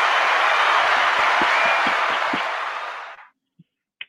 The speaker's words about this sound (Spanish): Vamos a darle un aplauso aquí